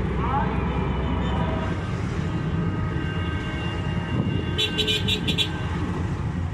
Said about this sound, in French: Mais je dois dire que la petite ambiance, là, elle est bien. Petite ambiance sonore de, la circulation. Et puis du muezzin qui appelle à la prière. En même temps.